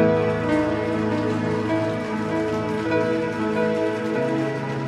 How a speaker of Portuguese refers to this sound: Você pode aplaudir ao Rei da Glória?